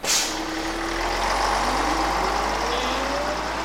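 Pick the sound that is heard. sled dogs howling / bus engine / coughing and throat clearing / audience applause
bus engine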